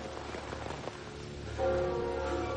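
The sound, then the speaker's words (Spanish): Steady rain falls with a constant, dense hiss across the whole recording, in a Spider-Man film scene where a man walks in the rain; partway through, a sustained ringing tone of church bells from a neo-Gothic church spire rises over it and holds to the end. No one speaks. “Peter camina bajo la lluvia.”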